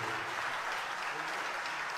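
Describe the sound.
Steady audience applause, a dense wash of many hands clapping at a constant loud level, with a faint murmur of voices mixed in beneath it.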